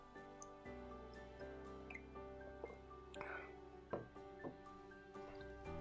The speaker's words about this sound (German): ich trinke mal ganz kurz noch ein Schlückchen Wasser.